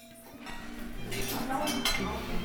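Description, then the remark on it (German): Busy café ambience in Braunschweig, Germany: cups and cutlery clink and rattle repeatedly over a steady murmur of indistinct voices in the background, moderately loud throughout. “Ich habe mich mit ihr in Braunschweig auf einen Kaffee getroffen.”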